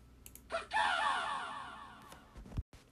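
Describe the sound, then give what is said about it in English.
A single harsh, metallic crow caw with a synthetic, robotic edge, loud, sweeping down in a grating burst before fading; a couple of faint clicks follow at the end. A Mecha-Crow sound effect in a video game. “Sorry für das eine Mecha-Crow-Geräusch.”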